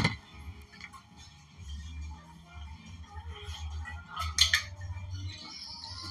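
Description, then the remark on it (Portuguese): Someone takes a sip of water: soft handling noises and small glassy clicks, then a brighter clink as the glass is set down, all over a low steady hum. “Vou tomar um gole d'água.”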